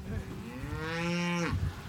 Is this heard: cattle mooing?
yes